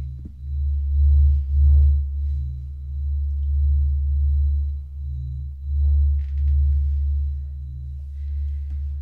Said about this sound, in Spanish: Pues en principio antes hemos, hablado que, que el límite estaría donde llega el viento solar, así que escuchemos un viento solar.